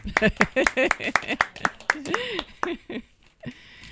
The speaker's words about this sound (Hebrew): אין פה קהל, אז נמחה לעצמנו כפיים.